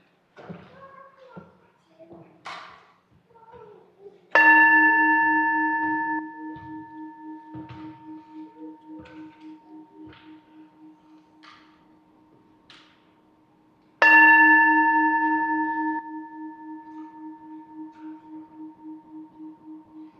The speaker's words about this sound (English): Now, let us breathe together, center ourselves in this space, and hear the bell as it calls us to worship.